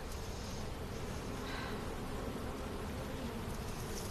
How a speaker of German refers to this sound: Mein Gott, was für ein Gesumm. Da sind noch mehrere Bienenstück drin. Da sind ein paar hunderttausend Bienen wahrscheinlich unterwegs.